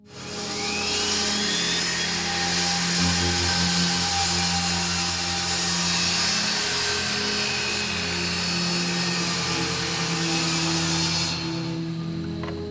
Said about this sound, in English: back from commercial, Randy is sawing wood while Jules waits.